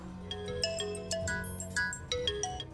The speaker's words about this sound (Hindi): इतने में उसका मोबाइल बज उठा